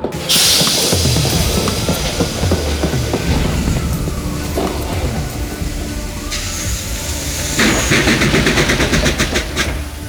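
A heavy truck engine starts up and settles into a loud, steady diesel rumble, with hissing air and mechanical clatter layered over the deep drone, from a truck driving through Texas. No one speaks.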